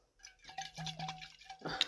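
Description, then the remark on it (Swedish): Weakly mixed strawberry and rhubarb cordial pours into a glass, a steady gurgling trickle lasting about a second, ending with a light clink of glass. “Men så där låter det när man häller i den i, i, i glaset.”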